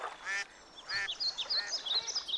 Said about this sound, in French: Ils longèrent les rives du lac aux grenouilles, d'où ils admirèrent le décollage majestueux d'une escadrille de canards sauvages.